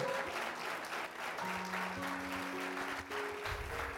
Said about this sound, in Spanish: Dele un aplauso fuerte a Él. A Él, a Él, vamos a Él, a Él, a Él, a Él.